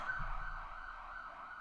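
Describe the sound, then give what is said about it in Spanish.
A steady, loud siren tone sustained over low rumbling traffic noise, sounding like an ambulance going by outside, with no voices present. “La ambulancia.”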